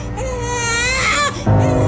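A sick baby cries loudly in a continuous, high-pitched wail that breaks briefly before a new, strained cry starts.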